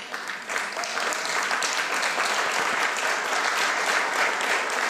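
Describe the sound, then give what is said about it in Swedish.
An audience breaks into sustained, loud applause given to Jesus, a dense wash of many hands clapping steadily for about five seconds with no voices standing out. “Ge applåd till Jesus.”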